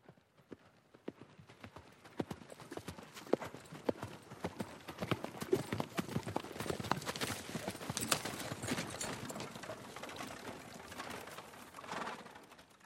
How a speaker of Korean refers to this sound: 그때 그의 귀에 말발굽 소리가 들려왔고 멋진 밤색 안마를 탄 리넨 옷을 입은 남자가 보였다.